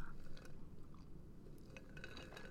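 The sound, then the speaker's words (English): Someone takes a quiet sip of seltzer from a bottle, with soft wet mouth clicks and a faint swallow against a low background hum. No one speaks. “So this is what I'm drinking. Let me take a sip.”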